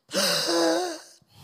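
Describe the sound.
A voice imitates a newborn's first breath after the umbilical cord is cut: a sharp, gasping intake of breath, one drawn-out rasping inhalation lasting about a second, fairly loud, followed by a faint breathy trail.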